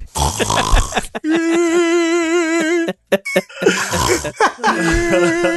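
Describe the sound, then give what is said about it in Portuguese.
A person imitates their father's snoring out loud with a long, wavering, almost sung drone, followed by a short gasp and another burst of rattling, laughing vocal noises, loud. “Meu pai também roncava de um jeito único, vamos ver se é igual.”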